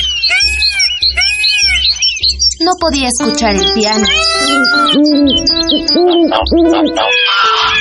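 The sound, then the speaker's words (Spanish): A busy chorus of birds chirping and calling over one another, loud, continuous and growing ever louder, while a person speaks over the noise. “Los pájaros hacían cada vez más y más ruido.”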